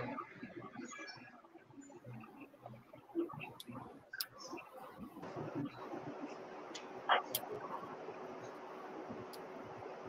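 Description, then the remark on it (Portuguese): Scattered keyboard taps and mouse clicks on a computer over a low background hum and faint murmuring, the clicks irregular and sharp, with a brighter cluster near the end. “É, agora, agora é aquela hora que a gente televisão, né? Fica digitando, fala alguma coisa aí.”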